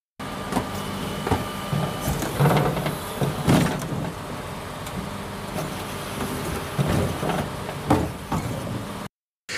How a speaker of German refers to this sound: Ja, es hat sich ja schon angedeutet. Ja, okay. äh, hier ja, kommt die Müllabfuhr.